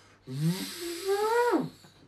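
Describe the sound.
A single drawn-out vocal imitation of a grandfather's lung breathing machine, a droning, wheezy hum that slowly rises in pitch for over a second before cutting off, fairly loud.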